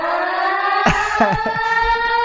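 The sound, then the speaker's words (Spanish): A loud, sustained end-of-the-world siren sound effect holds a steady, droning wail throughout, with brief bursts of voices or laughter breaking in over it partway through. “Es el fin del mundo, mira, sonido de...”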